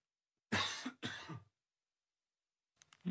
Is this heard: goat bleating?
no